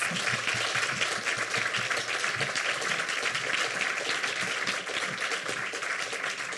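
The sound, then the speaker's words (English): An audience applauds steadily at the close of a discussion, a dense wash of many hands clapping at once that stays loud and even for several seconds without any voices on top. “Let's have a huge round of applause.”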